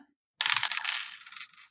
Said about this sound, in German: Da würfel ich jetzt auf den Wert meines Mechas, ne?